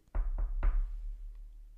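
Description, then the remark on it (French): Three firm knocks on a door, evenly spaced, each with a short wooden thud and a brief ring-out, followed by quiet. “Une fois que Madame Motivation a toqué à la porte, elle a fait”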